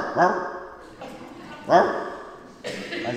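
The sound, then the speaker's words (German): A man barks like a dog, two loud woofs about a second and a half apart, with breathy vocal noise between them. “Da saß ich auf einer Hotelterrasse an der Mosel und weil ich so gut gelaunt war, habe ich vor lauter Übermut gebellt.”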